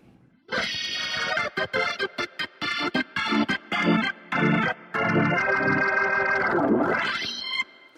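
A Hammond organ, played using its drawbars, plays a choppy run of short stabbed chords, then holds a loud sustained note whose tone sinks and swells back up, mimicking a singer choking a note before cutting off.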